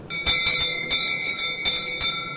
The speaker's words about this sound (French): je vois, il y a une cloche là, ça sert à quoi la cloche Alors, chaque client qui passe sonne la cloche pour dire qu'il est servi et ça le promène dans les pâtures franc-comtoises. Allez, on va la faire sonner